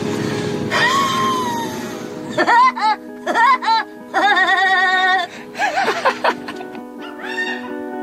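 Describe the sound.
A voice imitates Woody Woodpecker's laughing call: a string of high, warbling, strongly pitched bursts in a bouncy rhythm, fairly loud, following a brief noisy opening with a sliding tone.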